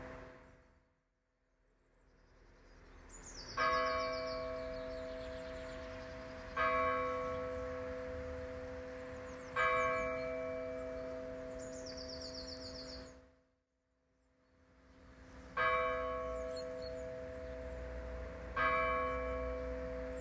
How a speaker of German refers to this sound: Viele hören das Läuten der Heimatglocke nur als Hintergrundgeräusch.